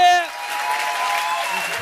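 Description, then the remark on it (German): A crowd claps and cheers in a dense, steady wash of applause. One voice whoops at the start, with scattered shouts rising over the clapping. “vor allem müsst ihr jetzt wirklich noch einmal, ich habe es heute schon ein paar Mal gesagt, macht mal Lärm, aber jetzt wirklich noch einmal Lärm für”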